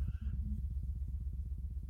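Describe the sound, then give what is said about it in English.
A deep, low-pitched rumbling tone hums steadily throughout, with a fast regular throbbing pulse, much like the range of a cat's purr. No voices are heard. “that is that is right at the frequency range of a cat's purr that you feel not hear Right.”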